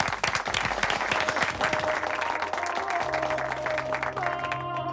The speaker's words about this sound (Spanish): Un aplauso para el ranking de Frank Estrada. ¡Bravo! Sí, señor.